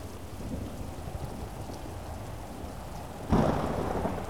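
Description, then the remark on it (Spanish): Steady summer-storm rain hisses with a low rumble of thunder underneath, then abruptly swells into a louder, denser downpour near the end, with no voices. “Y comienza a llover un poco más.”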